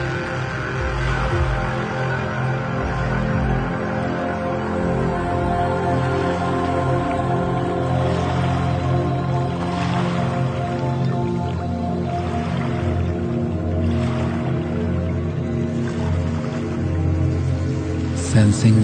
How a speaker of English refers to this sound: Hearing the sound of waves folding over one another.